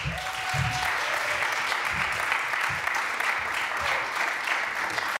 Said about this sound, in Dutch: Dank jullie wel. Mag ik een warm applaus?